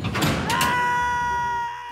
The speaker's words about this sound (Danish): Så vi snakker jo om faldlem.